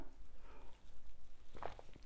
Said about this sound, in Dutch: Um, om nou concrete voorbeelden te geven van klanten die met mij gewerkt hebben, eh, dan eh, ga ik heel even een slokje thee nemen.